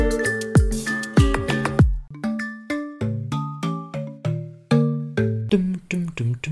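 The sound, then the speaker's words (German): A cheap-sounding, synthetic ringtone-style jingle plays alone: a quick run of bright, plucky electronic notes with sharp attacks and short decays, bouncing along in a steady, catchy rhythm, loud. “Das hört sich an wie ähm, ein billiges Jamba-Sparabo-Klingelton, den man sich bestellen kann, um dann jeden Monat einen neuen SMS-Nachrichtenton zu haben, einstellen zu können auf seinem Nokia 6310i.”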